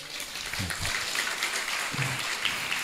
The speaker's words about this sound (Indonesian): Ngono e tepuk tangan.